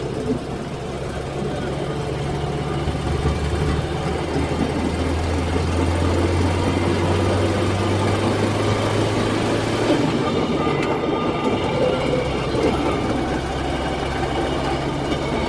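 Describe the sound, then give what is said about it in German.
A small rail draisine departs on a white signal and rolls along the tracks at about 40 km/h with a steady mechanical drone and low engine hum, the sound shifting and thinning partway through as it rolls on. “Sobald dann weiß ist, so wie jetzt hier, dann ist das der Abfahrtsbefehl.”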